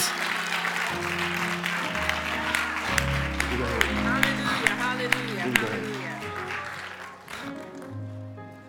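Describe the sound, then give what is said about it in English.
A large crowd claps hands continuously in agreement with a prayer, a dense, fairly loud patter of many hands over sustained organ-like chords, with voices calling out; the clapping thins out near the end. “If you agree with that prayer, would you clap your hands in the house on tonight?”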